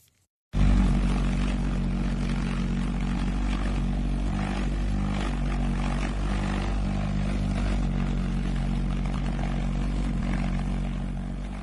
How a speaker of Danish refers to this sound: Det vi hører her, det er det militære luftvåbensmuseum i øh, Virginia, USA, der demonstrerer V1-bombens øh, fremdriftssystem. Og man kan jo lægge mærke til den her snurrende lyd.